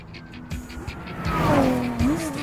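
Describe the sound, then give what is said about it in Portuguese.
An expensive sports car's engine revs and climbs in pitch as the car drives past, its roar swelling loudly with a faint tire squeal, and no one speaking. “Gostam de se exibir com carros caros, como BMWs ou Porsches”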